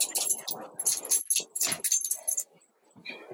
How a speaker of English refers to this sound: sorry our dog is scratching